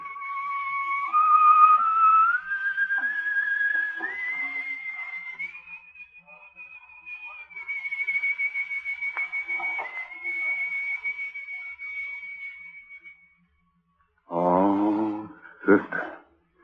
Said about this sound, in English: A melody more beautiful than life itself. Listen to it, David. Melody of death.